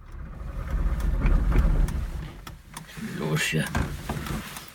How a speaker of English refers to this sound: At first, we couldn't get his old East German car to start. But then finally, the motor started running.